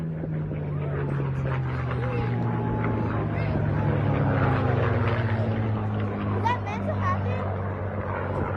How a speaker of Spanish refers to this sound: un Boeing B-17 Flying Fortis y un Bill P-63 King Cobra se estrellaron durante la exhibición, como le decía. Escuchemos.